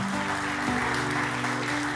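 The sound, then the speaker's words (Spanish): A church audience applauds the Lord Jesus with steady, dense clapping that fills the whole clip, while sustained low keyboard or organ tones hum underneath. “Démosle un aplauso al Señor Jesús por esa iglesia que Él montó.”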